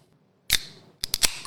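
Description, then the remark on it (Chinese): A can of Fidens Jasper hazy imperial Double IPA beer is cracked open with one sharp pop and a short fizzy hiss, followed by three quick metallic clicks. There is no talking. “接下来我开听”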